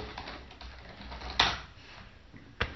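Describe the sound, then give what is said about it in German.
Quiet simulated rummaging while searching for a flyer, with soft shuffling and two sharper clacks standing out, without any talking. “Was, was Sie jetzt hören, ist simuliertes Kramen.”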